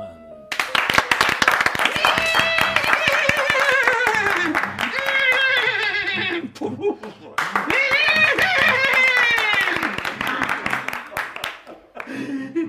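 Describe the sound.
A crowd at the Jockey Club horse races claps steadily as a family arrives, with many overlapping hand claps forming a loud, continuous wash, while voices talk over the applause throughout, briefly dipping before the clapping swells again.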